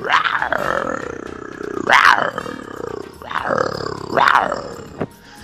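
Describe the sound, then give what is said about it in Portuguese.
A loud roar sound effect played as a birthday roar: a deep, rumbling animal roar that swells in about four powerful surges over several seconds, with no talking. “É o rugido de aniversário, Brasil!”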